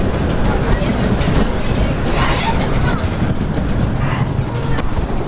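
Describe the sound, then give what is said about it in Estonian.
A roller coaster train rattles steadily along its track, a loud, continuous rumble with clattering metallic noise that never lets up. “I love it because I love roller coasters.”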